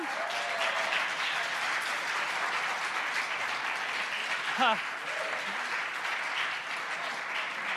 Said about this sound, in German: ich brauche erstmal nochmal so einen richtig dicken Applaus von euch für unser grandioses Deko-Team. Habt ihr das gesehen hier vorne? Könnt ihr mal klatschen?